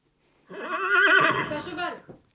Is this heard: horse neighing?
yes